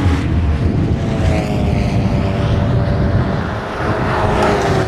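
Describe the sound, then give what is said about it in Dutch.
Steady engine roar from cars on a racing circuit, a dense low rumble with harmonic whine layered above, holding loud and continuous for about five seconds with no talking. “heel even een kort momentje nemen om te laten horen de ambiance van het feit dat we op het circuit zitten.”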